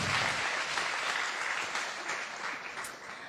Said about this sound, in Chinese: 可以鼓掌，谢谢，谢谢。